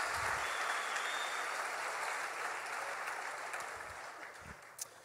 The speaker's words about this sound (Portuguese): Se você está entendendo alguma coisa, aplauda Jesus nessa noite.